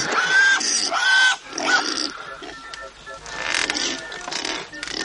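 A pig grunts and snorts in a string of loud, rough bursts, mixed with a few higher, drawn-out squeals over about five seconds, as a man kisses the pig on its snout and then spits.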